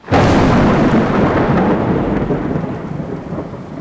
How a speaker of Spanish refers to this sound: Típica tormenta de verano. Truenos que retumban, lluvia torrencial y relámpagos que parten el cielo y hacen que el anochecer se vuelva claro día por un instante.